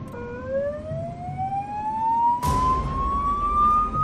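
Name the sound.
ambulance siren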